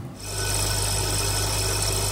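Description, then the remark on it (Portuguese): A FastPrep lab cell disruptor, a machine for breaking cells, violently shakes ultra-resistant plastic tubes holding small glass particles: a loud, steady mechanical rasp with a low motor hum that starts abruptly and runs continuously, with no talking. “Este é o som de uma fast prep, que é, basicamente, uma máquina de partir células juntamente com pequenas partículas de vidro, são colocadas dentro de tubos de plástico ultra-resistentes e depois agitadas com esta violência.”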